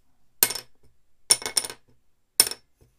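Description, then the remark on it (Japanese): A small old wooden violin soundpost dropped three times from about 7 cm above onto a wooden workbench, each landing a sharp, bright clack with a brief rattling bounce, separated by quiet pauses. “えー、机の上に作業台、木があるんですけど、えー、そこの7センチぐらい上からストンって落としてみます。”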